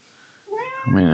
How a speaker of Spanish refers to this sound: si escuchan ruidos de fondo es que... Es que está, está maltratando a su gato.